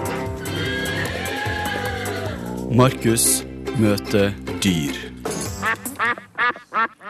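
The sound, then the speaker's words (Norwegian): A short radio jingle for a segment about meeting animals, broadcast from Sandnessjøen, with music, a horse whinnying and ducks quacking in quick rhythmic bursts toward the end, with a voice speaking over it. “Skal vi rulle jingle nå, eller var det nok av det i stad?”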